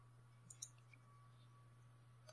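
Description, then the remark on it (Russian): A percentile die rolled in a tabletop role-playing game to check for a critical hit clatters faintly: a few light, scattered clicks and taps, then one sharper knock at the end, over a steady low hum with no talking. “Кидай процентный кубик.”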